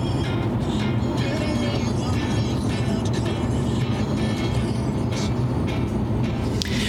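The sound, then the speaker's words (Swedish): Steady, enveloping low rumble inside a car driving toward Uppsala, Sweden, road and engine noise holding an even level throughout with faint higher hiss and no clear speech. “Men nu när vi sitter här i bilen eh, på väg mot Uppsala.”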